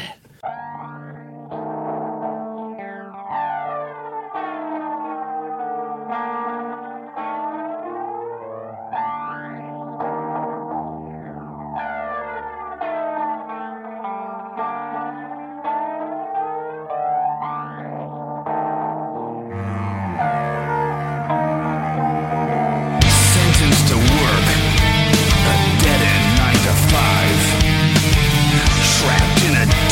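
A metal song opens with clean, chorus-soaked guitar notes ringing in a steady pattern, then builds and erupts into loud, heavily distorted guitars with the full band for the final stretch.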